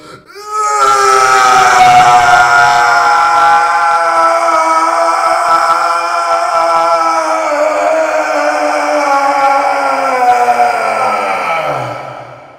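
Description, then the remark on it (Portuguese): A long, desperate scream of pain opening the Snyder Cut film, one loud sustained cry held for about eleven seconds before its pitch sinks and trails off. No speech accompanies it. “Com um grito desesperado de dor.”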